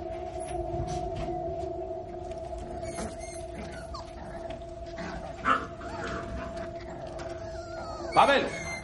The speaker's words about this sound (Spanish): El joven mira impresionado a una perra con varios cachorros.